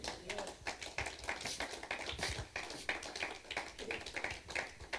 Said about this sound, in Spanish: Dele un aplauso al Señor, hermano.